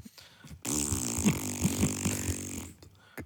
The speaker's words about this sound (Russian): Ой, простите. И... А за что я извиняюсь? Это наш подкаст. Могу хоть пердеть в микрофон.